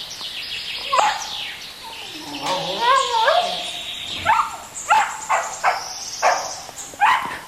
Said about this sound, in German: Das ist dann also der Hofshund, der mich hier in Empfang nimmt.